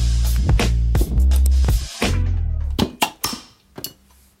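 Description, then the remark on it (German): Beer glasses clink together in a toast, a run of sharp knocks and taps at an uneven pace, over a low murmur of voices in the first half. “Prost, Jungs.”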